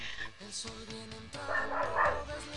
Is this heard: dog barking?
yes